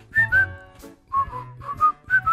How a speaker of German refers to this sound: Am Pfeifen?